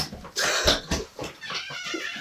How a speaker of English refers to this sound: I got the, The cough. the dry cough attack. It'll pass. It will pass.